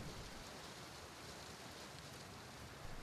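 Steady rain falls throughout, a dense, even hiss of countless drops with no pauses or voices, soft and constant.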